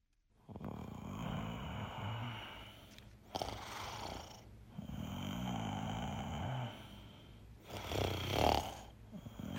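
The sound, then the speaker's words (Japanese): A teenage boy in his second year of junior high school snoring loudly, with four long, rasping snores repeating in a steady rhythm and brief pauses between them. No one speaks. “ラジオネーム仮面夫婦の中二の息子のいびきね仮面夫婦でこの中二の息子のいびきを どんどん送ってくるそのあたり気になるわちょっと聞いてみましょう。”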